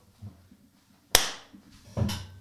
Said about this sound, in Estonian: äkki me saame selle välja lõigata, ma teen siia plaksu.